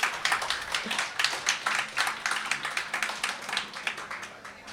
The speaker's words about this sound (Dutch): Jullie mogen best klappen hoor. Ook de mensen thuis.